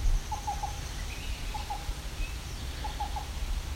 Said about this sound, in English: So we got a black-billed cuckoo. It's a black-billed cuckoo, and he's sitting in the open now.